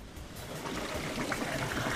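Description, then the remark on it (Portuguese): Water boiling and bubbling at the Caldeira Velha hot spring, a natural monument with a hot-water waterfall and bathing pools, a dense, steady churning gurgle that holds constant throughout, with no voices. “Isto aqui, isto é o som de água em ebulição na Caldeira Velha, eh, um monumento natural belíssimo onde existe uma cascata de água quente eh, e várias poças onde se pode tomar banho com água eh, a 30 e tal graus.”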